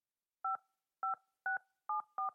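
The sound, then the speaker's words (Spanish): Five crisp touch-tone keypad beeps dialing a mobile phone number, each a short two-note tone in an irregular rhythm, clear with silence between presses. “Llamé al número celular del que me habían contactado tres meses atrás”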